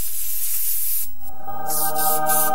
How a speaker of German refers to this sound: Nur zwei Sprühstöße aus dem praktischen Zerstäuber und das Lichtwesen verschwindet.